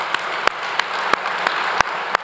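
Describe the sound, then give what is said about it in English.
A crowd applauds the volunteers who made the event possible, a steady, dense wash of clapping with a few sharper, louder claps popping out at irregular moments. No one speaks over it. “you guys, a, a big round of applause to all the volunteers that made this possible.”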